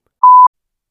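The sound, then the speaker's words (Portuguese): A single short electronic telephone tone from an incoming telemarketing collection call, one steady mid-pitched beep lasting about a quarter second, clear, with silence before and after. “Tem 10 mil pessoas aqui, ninguém patente atender um telefone.”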